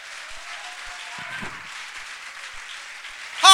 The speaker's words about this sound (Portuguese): Aplauda se você crê em nome de Jesus.